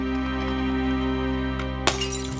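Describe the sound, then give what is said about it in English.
An Ediphone recording cylinder is smashed, a single sudden crack and shatter with brittle scattering fragments, after a stretch of steady low electrical hum that continues underneath. “That Ediphone cylinder you have there, that's all that's left of him.”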